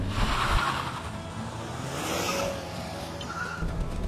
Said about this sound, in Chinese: 我们来感受一下，踩刹车的同时，我们把油稍微的往起轰一点，然后踩刹车。